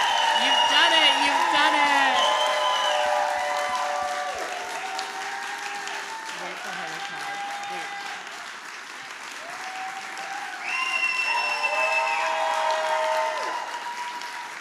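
A crowd claps and cheers loudly and steadily for about fifteen seconds for a performer leaving the stage, with high whoops and shouts rising above the dense applause, easing slightly midway before swelling again near the end.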